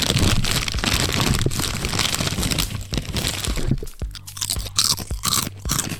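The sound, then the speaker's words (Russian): Loud, continuous crunching of Estrella dill-flavored potato chips being chewed, with dense crackling bursts throughout and a brief lull partway through before the chewing resumes; no talking. “Эстрелла с укропом, мои самые любимые чипсы.”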